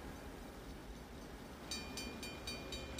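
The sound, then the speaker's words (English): A train rumbles past at a railroad crossing, its steady low roar joined partway through by a regular series of sharp rhythmic clacks from the wheels on the rails. “we were shooting down here to the railroad crossing.”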